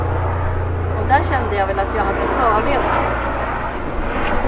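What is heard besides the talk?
helicopter flying overhead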